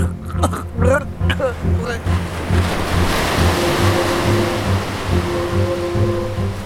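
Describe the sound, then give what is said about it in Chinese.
Ocean waves crash and rush in a continuous, loud roaring wash of surf, swelling and churning throughout, with low sustained tones humming underneath. “丽奇看到王子在海浪里载浮载沉，一下子沉下去，一下子又浮起来，他害怕的就快喘不过气了。”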